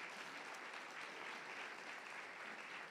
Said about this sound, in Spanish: Démosle un aplauso, démosle un aplauso a Dios.